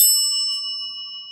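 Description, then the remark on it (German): A single bright, bell-like phone ring tone chimes once and rings out steadily, fading slowly with no voices present. “Also, pass auf, es klingelt.”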